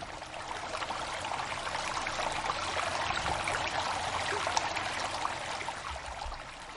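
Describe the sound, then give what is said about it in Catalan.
Steady, continuous babble of a flowing stream, moderately loud, with bright trickling and splashing texture throughout and no voices. “Aigua.”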